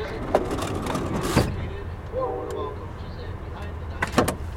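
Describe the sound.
A train compartment door with a small latch mechanism is slid and shut, with a sharp clunk followed by two more latching knocks near the end, over a steady low rumble and faint indistinct voices.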